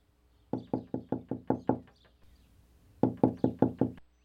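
Two quick bursts of sharp, hollow knocking on a door: about seven rapid raps, a short pause, then six more, fairly loud with no voices.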